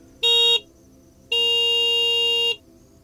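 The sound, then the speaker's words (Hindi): A vehicle horn honks twice in front of a friend's house, first a short blast and then a longer, sustained one, loud against a low rumbling background. “घर के सामने पहुंचकर मैंने दो बार हॉर्न बजाया”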